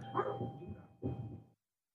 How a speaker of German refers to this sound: der Redaktionshund bellte, sorry.